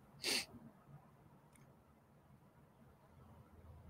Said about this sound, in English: I'm gonna sneeze.